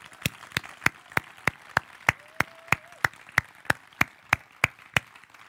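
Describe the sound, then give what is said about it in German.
Steady, evenly timed clapping, sharp hand claps repeating about three times a second in a regular rhythm throughout, like an audience clapping together in time, with no talking. “Vielleicht gibt da auch noch kurz einen Applaus an die, die sich so investiert haben in diese ganzen Tage, oder?”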